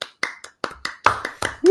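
Applause, a loose run of sharp, irregular claps at moderate volume, ending as a rising high-pitched whoop cuts in over them.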